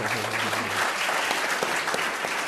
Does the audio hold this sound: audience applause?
yes